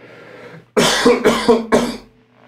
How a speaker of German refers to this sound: Warte mal gerade, ich muss noch mal husten.